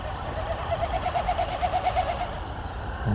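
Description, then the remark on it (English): A Wilson's snipe passes low and close, its winnowing a rapid, pulsing run of hollow hooting notes lasting a couple of seconds over steady outdoor background noise. “Maybe that was because I had a Wilson snipe really close to me.”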